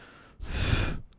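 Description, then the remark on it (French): A single breathy, whispered exhale made by a voice imitating a ghostly whisper, a breath that had woken the speaker, lasting about half a second, fairly loud, with faint noise before and after. “si tu entends un bruit, c'est enfin un bruit, un chuchotement, un star midi c'est un souffle qui m'a réveillé tout à l'heure.”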